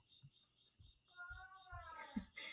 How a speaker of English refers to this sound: You might be able to hear my daughter in the background if anybody's hearing that little mama. She woke up, so Aww.